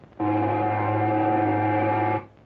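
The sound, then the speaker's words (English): A single deep boat horn blast, steady and loud, holding one low droning tone for about two seconds before cutting off abruptly. “No, no, that's a boat.”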